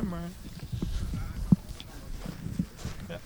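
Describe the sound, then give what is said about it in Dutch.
Footsteps crunch along outdoors in an irregular rhythm, a couple of steps landing sharper than the rest, with muffled voices and low ambient rumble in the background. “We lopen weer even die kant op, zodat we hen het eh, werk kunnen laten doen.”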